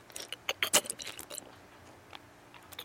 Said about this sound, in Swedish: Men gud, jag sitter och äter. Du måste ju låta mig tugga klart.